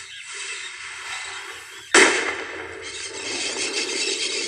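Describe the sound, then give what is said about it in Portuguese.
A watermelon bursts with one sudden, sharp crack that cuts through a steady background hiss, followed by a few seconds of loud, rough, spattering noise as it fades. “Prepara para explodir a melancia.”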